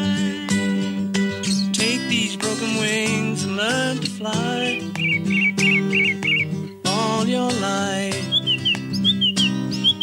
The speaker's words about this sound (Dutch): En nu heb ik even eigenlijk gereconstrueerd van hoe klinkt het dan met een lijster? Nou, laten we even luisteren hoe dat, dan, hoe dat zou klinken met een lijster.